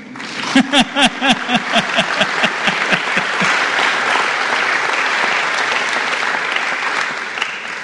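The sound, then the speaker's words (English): Audience applause begins with a few sharp, rhythmic claps, then swells into a sustained, dense wash of clapping from a crowd, continuing steadily and fairly loud to the end. The applause is for a couple married 45 years, in Fitzroy. “took their vows together and there they are still, 45 years later, coming into Fitzroy in the morning, deserving all the round of applause you're going to give them.”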